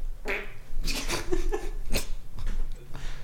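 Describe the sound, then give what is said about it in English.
A wet, sputtering fake fart noise blown with the mouth, a few bursts of buzzy flapping over about three seconds, loud and unaccompanied by speech. “Your fake farts sound real.”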